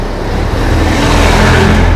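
A truck and passenger cars pass by on a road outdoors, with a loud, steady tire-and-engine roar swelling slightly over two seconds and no voices present. Humidity is 57%.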